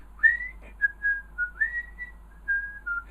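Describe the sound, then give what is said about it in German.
A person whistles a short melodic tune, clear, with several sustained notes gliding between pitches in a steady phrase. No talking. “Ich muss nur irgendwas pfeifen.”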